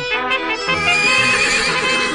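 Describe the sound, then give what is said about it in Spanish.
A horse lets out a loud whinny, a wavering high-pitched neigh that sustains for about two seconds with no talking over it. “a ver ese caballo para allá.”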